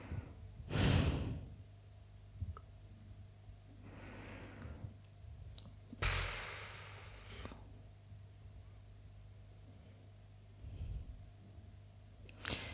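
Heavy, snorting breaths sound in a few loud, noisy bursts spaced a couple of seconds apart, with quieter huffs between them and no talking.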